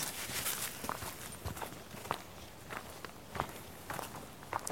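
Footsteps crunch steadily off-path through forest undergrowth near the Bogensee in half-darkness and moonlight, an even walking rhythm of about eight crisp steps over leaves and twigs, with no one speaking.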